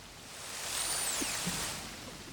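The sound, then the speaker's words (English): A narwhal social call from over 17 hours of narwhal sounds recorded by researchers: faint, high whistling sweeps rising and falling over a steady hiss of underwater background noise, with no one speaking. “And here's what they heard these are the actual recordings of the narwhals. Scientists think this is a social call, like maybe the narwhals are saying, How's it going to each other?”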